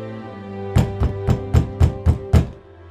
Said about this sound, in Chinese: 彼得不住的敲门，他们开了门，看见他，就甚惊奇。